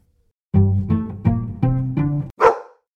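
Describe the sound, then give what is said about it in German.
A dog lets out a few drawn-out, whiny grumbles in quick succession, then one sharp, breathy sneeze, with no one talking. “Gesundheit.”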